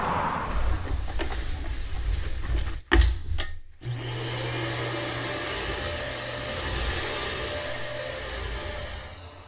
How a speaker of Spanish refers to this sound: No obstante, era difícil mantener el espíritu romántico y lánguido con la aspiradora de la señora Bird zumbando al otro lado de la puerta.